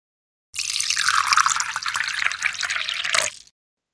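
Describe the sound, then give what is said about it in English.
Tea pours in a steady stream into a cup for about three seconds, a bright splashing trickle that rises slightly in pitch as it fills, moderately loud, with no voices. “So pour yourself a cup of tea and get comfortable.”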